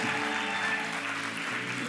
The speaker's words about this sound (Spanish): Gloria a Dios. Denle un fuerte aplauso a los jóvenes. Ahí están.